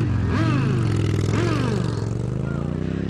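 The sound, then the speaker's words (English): Loud motorcycle engines rev outside a biker bar in Sturgis, South Dakota, their pitch rising and falling in a couple of throttle bursts over a steady rumbling idle, with some clattering mixed in. “How about outside this biker bar in Sturgis, South Dakota, what they think of the new, well balanced Equilibrium cigars?”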